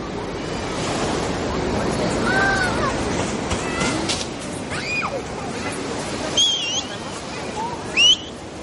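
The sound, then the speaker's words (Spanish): Steady ocean surf rushes and breaks on the shore under bright sun in a continuous wash of noise, with a few short high whistles from a person rising above it near the end. “Este se muestra libre y feliz sol brilla potente sobre el mar y la joven se inhala en el de oleaje.”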